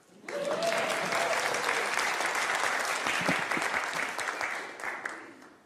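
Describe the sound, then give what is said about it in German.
An audience at a sermon claps steadily for several seconds, a dense, even wash of applause that starts abruptly and fades slightly toward the end, with a brief tonal whistle early on. “Ein Applaus für”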